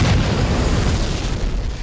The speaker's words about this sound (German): Explosionen!